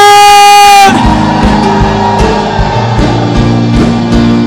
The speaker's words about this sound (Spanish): Muros caerán de júbilo. ¡Un grito de victoria!